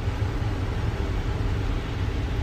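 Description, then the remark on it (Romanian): Steady droning rumble inside a moving truck cab in Newhall, deep engine and road noise with a constant hiss layered on top, no voices. “Suntem în Newhall. Așa, în, în camion.”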